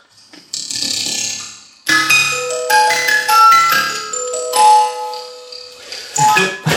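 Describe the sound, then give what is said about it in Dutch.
A tinkling music-box ballerina tune, recorded and processed electronically through a delay effect, its bright, high chiming notes repeating and smearing into overlapping echoes. It plays on its own with no talking. “En eh, we kunnen dat, de ballerina ook hierin opnemen en dat dan vertragen. We kunnen nu door een delay gooien.”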